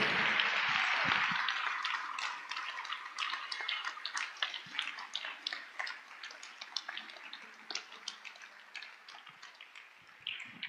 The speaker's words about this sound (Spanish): Dele un aplauso a Él, por favor.